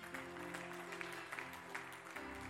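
An audience gives a clap offering to the Lord, clapping steadily, a dense wash of many hands at once, with sustained organ or keyboard chords ringing underneath throughout.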